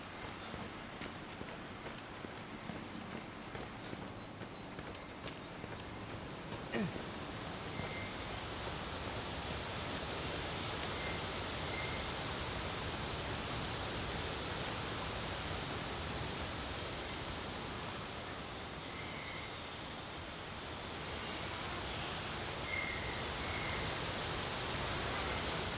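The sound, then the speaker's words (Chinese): Video game ambience recorded in-game, blending seamlessly from one area to the next: a dense, steady wash of noise whose texture gradually shifts, with rhythmic footsteps early on, a brief sharp hit, and faint high tones. No talking. “这是我在游戏里面录制的区域区域之间的衔接。”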